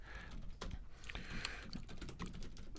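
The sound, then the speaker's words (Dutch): Rapid, irregular typing on a computer keyboard as a web search is entered, a steady patter of clicky keystrokes with a few brief pauses, and no voices. “Google die weet inmiddels dat ik ook ah, niet kan typen”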